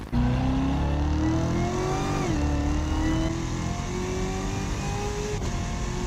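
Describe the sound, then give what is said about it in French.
A loud 6.2-litre V8 car engine, 650 hp stock and tuned to 1,294 hp and 1,580 Nm on a 98 unleaded fuel map, revs hard, its deep droning pitch rising, dipping briefly as if shifting gear, then pulling steadily onward for about six seconds with no voices. “Un V8 6 litres 2 qui de base fait 650 chevaux, ce qui en fait déjà un sacré gamos.”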